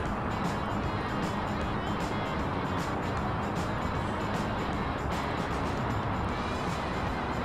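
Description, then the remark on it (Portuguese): A steady, dense engine drone fills the whole stretch, a constant low-to-mid hum of a simulated airliner cabin in flight, with no breaks or change in level. “O som de cabininho de avião é idêntico ao de, de verdade, né? Esse. Esse humming é. constante, é, né?”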